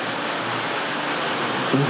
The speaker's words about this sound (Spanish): yo creo que está cayendo un sendo aguacero de la nada en mi campito en Yauco. Así que vamos a disfrutar esta lluvia inesperada que nos está acompañando en el episodio de hoy.